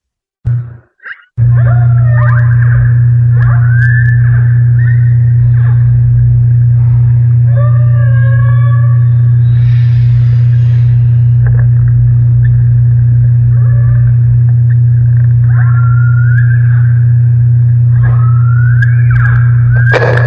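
Humpback whale song recorded underwater: a series of rising and falling moans and whistling cries repeating at intervals over a constant low hum, with no talking.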